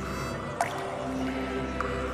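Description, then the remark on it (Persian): Two separate drops of liquid plink into a glass of water, more than a second apart, each a short clear drip over a steady low background hum. “فقط پنج قطره شد در یه لیوان آب میریزید”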